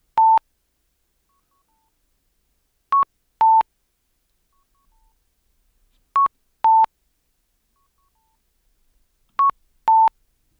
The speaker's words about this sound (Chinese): 这个就是日本的嗯、呃、十字路口或是一些路口会常常有的交通信号的声音嘛。那只要有来过日本玩旅游观光的人呢，基本上一定会有听过这样的一个声音。